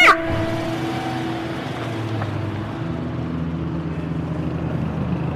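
A police car stopped outside a café idles and hums steadily after a sharp thump at the start, as a handcuffed man gets in; a low rumbling drone that holds throughout with no voices.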